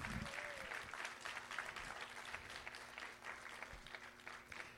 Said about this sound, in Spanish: ¿Cuántos le dan un aplauso fuerte al Señor?